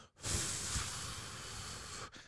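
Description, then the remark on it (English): A crackling fireplace fire sound effect, a steady rushing hiss dotted with a few soft pops, lasting about two seconds at a moderate level with no voices. “It sounded like a fireplace.”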